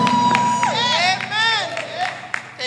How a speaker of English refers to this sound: Is there any praiser in the building at all? I want you to open up your mouth, clap your hands, and give God some shout of praise.